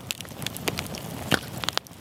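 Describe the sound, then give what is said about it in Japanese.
A campfire crackles and pops, with irregular sharp snaps scattered over a steady hiss of burning wood, and no voices. “あなたもこんな音で癒されてみませんかステーキを焼く音川のせせらぎ焚き火の音”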